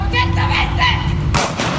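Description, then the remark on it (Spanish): A sharp burst of machine-gun fire cracks out partway through a video recording, loud and harsh, over a dense, noisy background with voices talking throughout. “donde empieza a tirar balazos y el que está grabando el video le dio un balazo al que estaba grabando el video, güey.”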